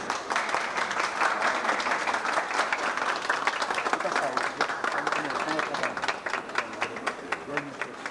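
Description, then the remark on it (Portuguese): An audience applauds steadily for several seconds, a dense wash of many hands clapping at an even loudness, with a few sharper individual claps standing out as it thins slightly toward the end. “Aplausos.”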